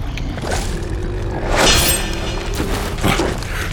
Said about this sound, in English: With a heavy downward strike into the manageable mound of lava, the sound echoes through the chamber of the cavernous pits as something hard had been struck.